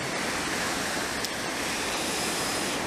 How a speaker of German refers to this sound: Ich sitze hier in der schönen Natur am Meer. Das heißt, lasst euch von den Wellen im Hintergrund und von dem Wind in die Entspannung führen.